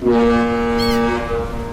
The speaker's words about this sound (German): Das ist der Sound des Hamburger Hafens. Im Schnitt legt hier jede Stunde ein Schiff an und dann geht es los. Die Fracht wird entladen, neue Fracht kommt an Bord.